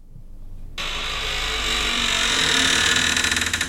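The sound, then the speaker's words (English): The door of a cabinet of curiosities, in need of oiling, creaks open with a long, harsh, grinding squeal that starts abruptly and holds steady for several seconds, roughening and wavering toward the end. No one speaks over it. “Still need to oil that door.”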